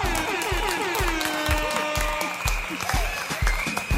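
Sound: applause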